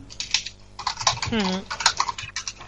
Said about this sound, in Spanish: que estará cogiendo cosas porque se escucha. Uy, uy, uy. escribiendo.